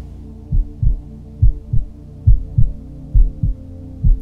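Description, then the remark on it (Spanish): A human heartbeat pulses steadily in a double lub-dub rhythm, five deep, muffled thumps in pairs over a low, constant hum, with no voices present. “Estás ahí contigo con los latidos de tu corazón.”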